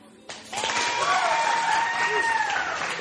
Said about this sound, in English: Can I get a clap?